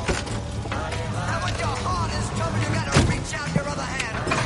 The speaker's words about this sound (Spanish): El coche gira hacia la autopista. Ve por ahí hacia la autopista de Hollywood.